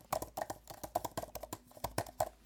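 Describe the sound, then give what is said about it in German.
Rapid, irregular clicking of laptop keys being typed on, a steady stream of crisp taps with no one talking. “Also ich versuche das ja. mal, ich tippe mal ein bisschen.”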